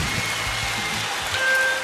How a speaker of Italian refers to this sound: non è che sta diluviando ma è tipo pioggia tropicale tutto completamente allagato grandine fulmine e saette una tragedia